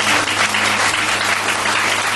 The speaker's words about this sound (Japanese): 28歳の男の何でもない深夜を喋っただけなのにこの拍手ですオープニングアクトっていうのはとても素晴らしい効果がありますね